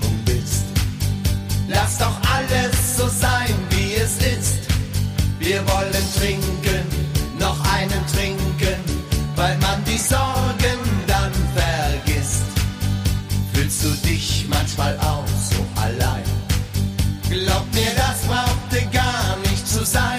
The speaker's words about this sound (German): Wir haben Festzeltlieder für Sie zusammengestellt. Perfekt, wenn Sie Lust auf richtig gute Laune haben.